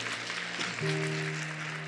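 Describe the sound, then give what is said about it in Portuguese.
An audience at a church service claps steadily for the people watching online, a dense, continuous wash of applause, while a sustained keyboard or organ tone holds underneath and swells slightly partway through. “Dá uma salva de palmas para o pessoal que está online.”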